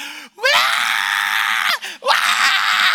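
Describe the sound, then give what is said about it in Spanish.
A person imitates a piglet's squeal being slaughtered: two long, loud, shrill shrieks, the first about a second and a half, the second following after a quick breath. “El único animal, yo cuando era joven, mi abuelo dice, ven, te voy a enseñar cómo se mata un lechón. Y me llevó ahí atrás cuando esa cosa empezó a berrear.”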